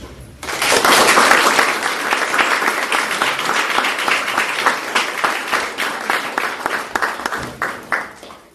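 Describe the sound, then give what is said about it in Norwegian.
A crowd applauding the politicians at the end of a Valg 2023 election debate bursts into loud, dense applause that holds steady for several seconds, then thins into scattered, individual claps before fading out. “Så vi takka masse alle politikerne for deres opp, og alt de har kommet med. En applaus.”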